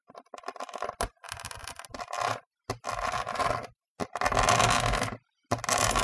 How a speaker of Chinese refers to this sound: 很深的抓挠声。来自隔壁的储藏空间，那不是我的幻觉，我真的听到了